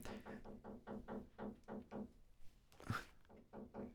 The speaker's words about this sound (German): Er hat gerade die Tür geklopft.